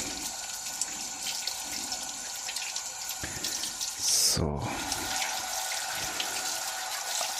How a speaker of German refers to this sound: Einmal mit warmem, einmal mit kaltem Wasser die Hände abwaschen.